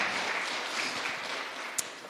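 A crowd applauds steadily, a dense wash of many hands clapping at an even level for about two seconds, with one sharper click near the end.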